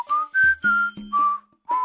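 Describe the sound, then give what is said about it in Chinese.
A fox in a story whistles a short tune while carrying a goose egg under its arm, four or five sustained notes stepping up and down around a bright mid-high pitch, with brief gaps between phrases and a low hum underneath some notes; no one speaks. “狐狸把鹅蛋夹在腋下，一边吹着口哨。”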